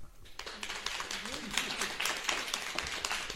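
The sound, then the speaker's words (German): An audience in a city library (Stadtbücherei) claps after an author's reading from the crime novel Die Macht der Wölfe, a steady, crackling burst of applause that starts after a brief quiet moment and keeps going, with a faint voice briefly audible beneath the clapping. “Und das Publikum, was hier ist, applaudiert bestimmt.”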